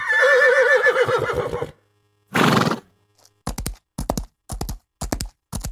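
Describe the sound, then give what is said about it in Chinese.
A horse gives a loud, wavering whinny, then a breathy snort, followed by a steady run of heavy galloping hoofbeats pounding dry earth in a regular rhythm. “驰骋在土地的声音与奔跑在泥淖中不同。”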